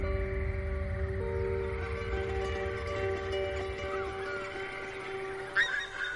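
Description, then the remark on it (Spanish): In a scene from the film La isla mínima, a flock of birds calls in the sky with steady goose-like honking over a low, rumbling background, with a brief louder burst near the end. No one speaks. “Una bandada de pájaros en el cielo.”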